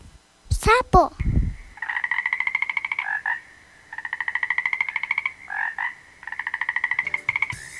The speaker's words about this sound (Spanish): Sapo.